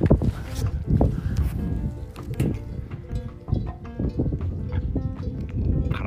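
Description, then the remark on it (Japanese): Metallic cowbells clank irregularly as cows wearing bells walk through open pastureland along a countryside walking route, several bells ringing and overlapping with resonant tones, set against an outdoor rumble of wind and footsteps. “これ多分牛か牛かなんかが顔ぶれつけて歩いてるわ”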